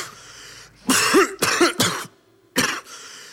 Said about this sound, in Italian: La mia malattia è la tosse che porto, dico sempre che l'ho presa ieri.